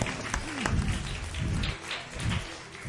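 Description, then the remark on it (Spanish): Steady applause from an audience applauding a group activity, a dense wash of many hands clapping at once, with faint voices murmuring underneath throughout. “Un aplauso enorme para esta dinámica.”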